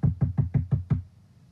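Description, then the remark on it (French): Six quick, evenly spaced, firm knocks on a wooden door, each a dull thud with a short rattle, then a brief quiet tail with no voices. “Et que tu cognes,”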